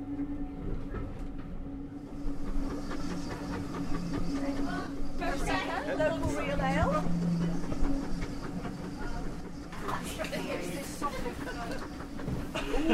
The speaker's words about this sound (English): just had my ticket clipped by the ticket inspector. There are probably about 30 people on this first train of the day. I would imagine that as the day progresses, the trains will get much busier.